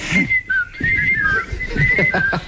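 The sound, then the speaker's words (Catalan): A person whistles an imitation of a great tit's trisyllabic song, a bright, high warbling line that dips and rises in short repeated phrases, with faint rustling and low background noise beneath. “Uh, la mallarenga carbonera eh, és fàcil. Ah fa un cant trisilàbic.”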